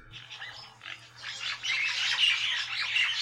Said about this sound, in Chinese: 好，因为它白尾八哥的声音没有吵的声音，我来找一个吵的声音给大家听哈。我们来找家八哥吵的声音哈，就是一大群聚在一起的时候。